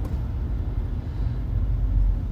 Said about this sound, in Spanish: viene el presidente 1, 2, 3, 4, 5, 6, 7, 8, 9, 10, 11, 12, 13, 14, 15, 16. Hay más de 35, 37 carros que viene. El presidente está en un carro. Wow.